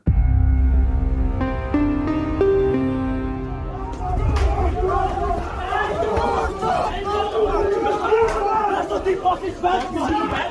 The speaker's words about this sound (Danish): Lydklippet er fra en video, der er optaget på stationen, som viser, hvordan fodboldtilhængerne styrter ud af S-toget og jagter hinanden med slag og spark